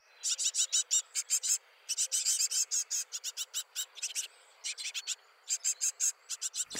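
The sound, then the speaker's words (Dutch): Nestling birds in the nest peep insistently for food, a rapid stream of thin, high-pitched cheeps arriving in quick bursts with short pauses, fairly loud, with no talking. “Die piepen een beetje. Het enige wat die eigenlijk van boodschap kunnen overbrengen is: ik heb honger.”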